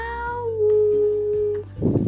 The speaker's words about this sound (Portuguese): Que surpresa sem igual o tamanho do miau!